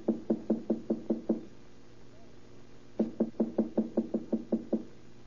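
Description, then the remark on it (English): Two bursts of quick, firm knocking on an apartment door, number three, about seven raps, a pause of a couple of seconds, then around nine more. Clear, with no voices. “Wait, I'll, knock first.”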